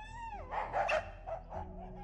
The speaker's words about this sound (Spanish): La lumbre estaba apagada y los perros estaban ladrando como ladran en la noche.